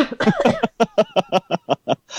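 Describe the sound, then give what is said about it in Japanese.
A loud coughing fit: one harsh hack followed by a quick, evenly spaced string of about eight short, strained coughs, with no talking. “いや、感染、いや、今咳込んだらやばいっすよね。”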